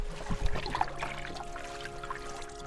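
Water splashes and trickles steadily around a canoe being pulled along, a close, continuous wet churning with a faint low hum underneath and no voices.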